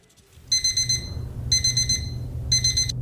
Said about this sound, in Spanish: Si usted está entre los millones que todos los días aprieta el botón de la alarma para dormir un poco más.